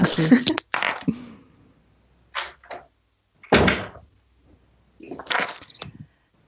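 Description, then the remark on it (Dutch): A person shuts the door behind them, with a sequence of short bumps, clicks and a firmer thud as it closes, followed by a final rattle of the latch. “Ik ga het deur achter mij.”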